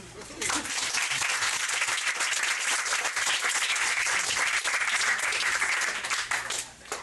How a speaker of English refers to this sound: And uh, more applause.